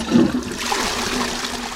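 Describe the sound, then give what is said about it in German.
A toilet flushes with a loud rushing surge of water that settles into a steady, hissing swirl as the bowl drains, with no voices present. “Der größte Posten ist dabei die Toilettenspülung.”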